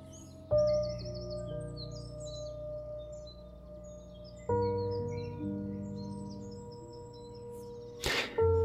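Birds chirp and twitter steadily in the background throughout, short repeated calls from a few directions, while two loud, sustained resonant tones swell in and linger beneath them, ending with a brief rustling burst.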